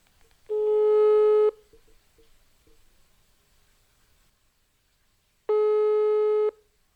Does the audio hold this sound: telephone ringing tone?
yes